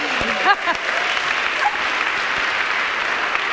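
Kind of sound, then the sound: crowd, audience clapping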